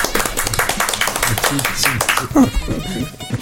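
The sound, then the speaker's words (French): A brief burst of hand clapping from a few people welcoming a guest, quick irregular claps that fade out after about three seconds, with voices mixed in. “On peut l'applaudir.”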